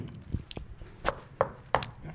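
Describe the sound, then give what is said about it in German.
A handful of knocks, about five dull, hollow raps in an uneven rhythm, the later ones sharper and louder, with no talking. “Ich klopf mal. Sicherheitshalber.”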